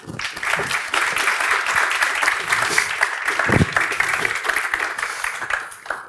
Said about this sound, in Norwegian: En varm applaus til alle tre.